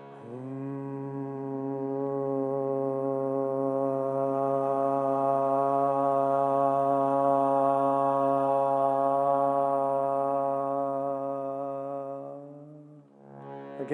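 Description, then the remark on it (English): A single low, steady vocal tone held for about twelve seconds, a hum that opens into a sustained 'ah', fairly loud with no talking, trailing off at the end. “This time, starting with a hum, but then opening your mouth, creating the ah sound.”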